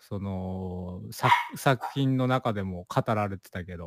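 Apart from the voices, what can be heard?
dog barking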